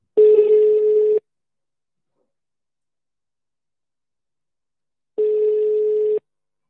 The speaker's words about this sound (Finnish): Mutta siis kun me nyt puhutaan tästä Fandurosta, niin soitetaan Fanduro-sarjan äitille